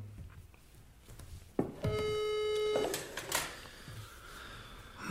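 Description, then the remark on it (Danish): A phone line's ringback tone sounds once, a steady buzzy beep lasting about a second, preceded by a click and followed by some faint handling noise. No one speaks. “Jeg ringer nu.”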